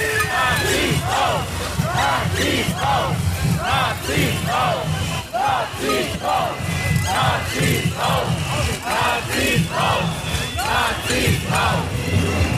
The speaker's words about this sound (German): Es wird lautstark gebuht. Anscheinend irgendeiner der AfD-Prominenz betritt die Stadthalle.